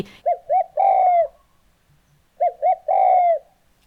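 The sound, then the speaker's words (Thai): A spotted dove coos in two matching phrases, each two short soft notes followed by a longer drawn-out coo, clear with brief silence between, no voices present. “ได้รู้จักเสียงร้องของนกไปแล้ว ถ้านั่งนั่งอยู่ได้ยินนกร้องขึ้นมาอ๋อนี่เสียงนกเขาใหญ่”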